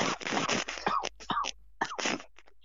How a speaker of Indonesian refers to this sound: langsung batuk tuh biar kalau batuk nggak dikira covid